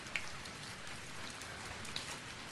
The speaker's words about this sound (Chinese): 一夜的雨声，说些什么呢？